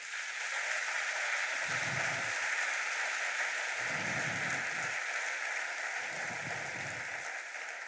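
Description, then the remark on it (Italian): Sustained applause from a crowd giving an applause of glory to God, a steady, dense patter of many hands clapping throughout, with three brief bursts of deeper rumble or cheering swelling beneath it. “Quanto siamo importanti per Dio, diamogli un applauso di gloria.”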